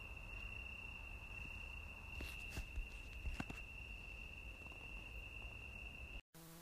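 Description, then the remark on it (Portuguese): Crickets chirp steadily at night, a thin continuous high trill running unbroken through quiet darkness, with a few soft taps and rustles midway before the sound cuts off abruptly. “Ficamos aqui a ouvir os grilos.”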